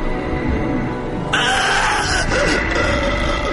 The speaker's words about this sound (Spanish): oyóse entonces un agudo grito, mientras el puñal caía resplandeciente sobre la negra alfombra y el príncipe próspero se desplomaba muerto.